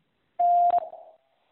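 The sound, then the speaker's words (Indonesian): A steady electronic beep tone, a prompt to answer a quiz question, holds for about half a second, then two quick clicks break it before it fades away with a short echoing tail. No one speaks. “Silakan jawab setelah nada berbunyi.”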